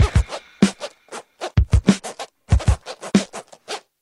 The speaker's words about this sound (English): We would make our put our zippers up and down really fast to make it sound like we were DJs.